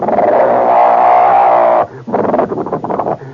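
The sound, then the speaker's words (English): A voice imitates a starter motor's siren-like whine: a loud, sustained tone that swells slightly in pitch for nearly two seconds, then breaks into choppy, sputtering vocal bursts. “I said, oh my God, listen to the siren. He said, don't get excited. That's just the starter.”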